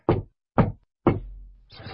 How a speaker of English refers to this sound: Knock, knock, knock knocking at our little front door.